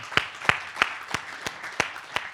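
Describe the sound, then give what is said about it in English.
Congregation clapping in a steady, even rhythm, about seven sharp claps over a soft, constant crowd hiss, with no distinct cheering or voices, celebrating a matched thousand-dollar gift that funds the clothing closet for a year. “Now, and we don't we don't cheer like that just just as pats on the back, but we are celebrating what God has done through what's going on at Cornerstone.”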